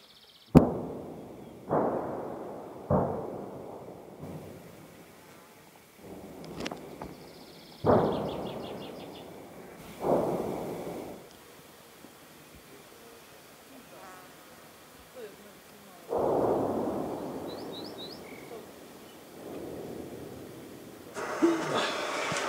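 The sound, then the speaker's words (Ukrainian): Artillery shells land one after another near Bakhmut, Ukraine, fired by Ukrainian troops at targets found by aerial reconnaissance; each a muffled boom rolling off into a rumbling decay, seven or so at irregular intervals with a couple of louder hits. “Отам знаходиться Бахмут, і те, що ми чуємо прильоти, це наші хлопці працюють по тим цілям, на які аеророзвідники наводили.”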